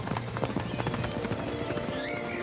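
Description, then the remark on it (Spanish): A herd of wild horses, returning from the mountains, gallops past, many hooves pounding in a fast, dense, overlapping rumble that stays loud and steady throughout. “Una semana después, el caballo volvió de las montañas trayendo consigo una manada de caballos.”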